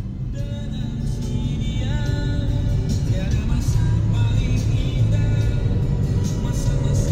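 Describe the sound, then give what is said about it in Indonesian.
Motorcycle engines rev amid steady traffic as one motorcycle nearly crashes into the motorcycle in front of it. A dense low rumble is threaded with whining tones that rise and fall, holding a fairly constant loudness throughout. “Wah motor itu hampir mau nabrak motor depannya.”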